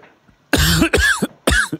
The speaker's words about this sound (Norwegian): Jeg tror jeg er den eneste som ikke hoster.